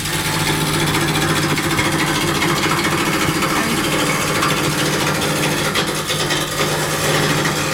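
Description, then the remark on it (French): A steady electric motor hum with a low drone runs throughout, overlaid by a continuous rough, scraping whir as a steel wood lathe turns and cuts wood, fairly loud, with no talking. “Ici j'ai un beau tour en acier avec un moteur électrique, ce qui n'a rien à voir avec les tours d'époque, qui eux étaient en bois avec un moteur à l'aide d'un apprenti qui tournait une ah manivelle.”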